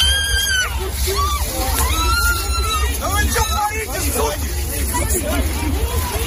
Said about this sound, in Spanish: Es el sonido de una de esas detenciones en la que los agentes arrastran por el suelo, literalmente, a una opositora a Putin.